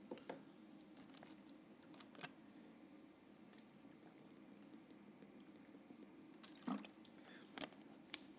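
Someone drinks water, with soft wet sips and a few swallows, the loudest near the end, against a quiet background with no talking.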